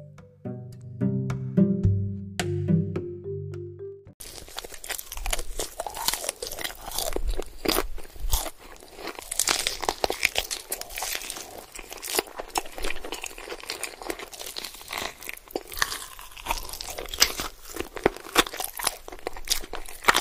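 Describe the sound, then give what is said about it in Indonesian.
After a short tonal musical bit, loud crunching of someone biting and chewing cireng, a crispy fried snack, goes on steadily for about sixteen seconds, with irregular crackly bites and no talking. “Nah, itu kemudian uh, kita konsumsi bisa dikasih bumbu royco lagi atau dikasih balado atau pakai saus atau bisa pakai sambal buatannya teman-teman nih nah coba kita rasain ya pasti kriuk-kriuk”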